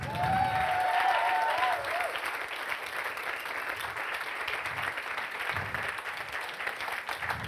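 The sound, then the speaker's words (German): A crowd applauds steadily for several seconds, dense clapping filling the space, with a brief whistle or cheer near the start before the applause settles into an even roar. “Und jetzt lasst uns bitte mal dem Heiligen Geist und Jesus einen Applaus geben, weil es nämlich nicht wir selber sind, die uns verändert haben, sondern der Heilige Geist hat uns verändert.”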